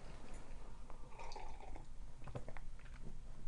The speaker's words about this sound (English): This is, uh, hold on, sip of tea. Those of you with misophonia, step away for a second.